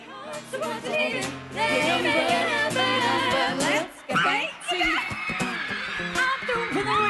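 Several high-pitched voices of girls shriek and yell over each other almost continuously as they run in all directions while a large flying creature dives at them during a sing-along, a frantic overlapping jumble with one brief lull midway before the chaotic screaming picks up again.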